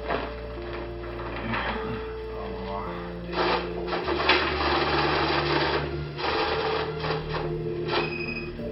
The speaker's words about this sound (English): That noise you're hearing is a money counter. A money counter is about the size of a small printer. There's a tray at the top where you place the bills, and then those bills are sent to a lower tray as they're counted by the machine.